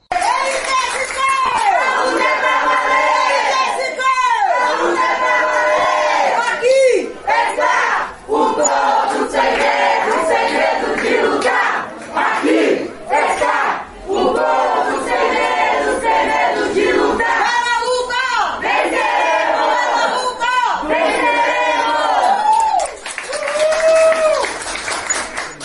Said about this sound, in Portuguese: Isso mesmo, palmas, muitas palmas, porque trabalhador unido jamais será vencido.